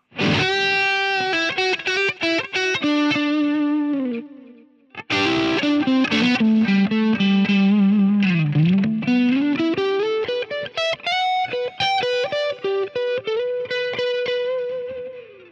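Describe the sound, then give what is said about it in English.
Electric guitar, a Strat, on its single-coil neck pickup alone (pickup position five, not noise cancelling), plays overdriven lead lines with sustained bent notes, a short pause, then a slow pitch dive and climb back up. No voices. “Here's uh, the neck pickup by itself.”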